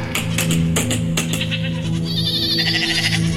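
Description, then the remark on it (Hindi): Sheep and goats standing on the far side of a river bleating together, several overlapping wavering calls from a flock, with a steady droning background and no talking. “सचमुच सभी भेड़ बकरियां नदी के उस पार खड़ी थी”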